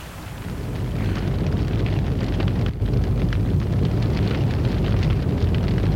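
A loud, steady roar of a large blaze in a building's attic, with flames and smoke coming out of the mansard, fills the whole stretch: dense low rumbling with scattered sharp crackles and pops throughout, continuous, with no voices.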